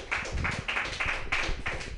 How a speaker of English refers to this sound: Okay. I think that's it. Thank you. All right, everyone clap